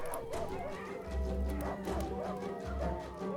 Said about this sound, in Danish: Og pludselig begynder de danske slædehunde at gø og hyle.